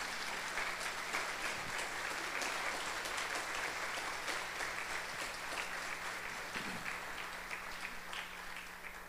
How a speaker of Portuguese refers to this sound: Eu vou perguntar de novo, os irmãos estão alegres? Então aplaudam a Jesus que lhes dá essa alegria.